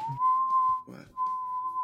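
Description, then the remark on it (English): A person whistles a steady, wavering high tone imitating a theremin, sliding slightly upward, breaking briefly with a breathy burst mid-way, then resuming the sustained eerie pitch. “I can only do theremin noises.”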